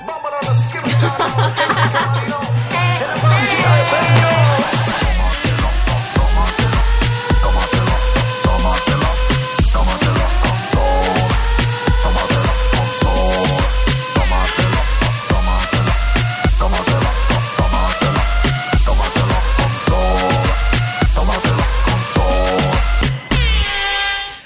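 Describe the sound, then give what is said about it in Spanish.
A recorded song sung by the speaker, with a brassy cornet carrying the melody over a steady, punchy bass beat and driving rhythm, loud and continuous throughout; the cornet phrases swoop and bend repeatedly. “Quiero escuchar una canción ahorita que canté yo oh, y suena así.”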